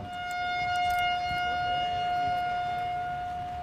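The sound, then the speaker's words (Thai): A bugler of the military honour guard holds a long, steady brass note with bright harmonics, sounding the slow lights-out call at moderate volume over faint background noise, in mourning for the heroes who died defending national sovereignty at this site in the R.S. 112 crisis, with no one talking. “ท่านผู้ชมคะเสียงแตรที่ท่านผู้ชมได้ยินอยู่ในขณะนี้นะคะ คือเสียงเพลงนอน ของคนแตรกองทหารเกียรติยศ เพื่อไว้อาลัยแด่วีรชนผู้กล้าที่ได้ทิ้งร่างไว้เพื่อปกป้องอธิปไตยของชาติณพื้นที่แห่งนี้ค่ะ”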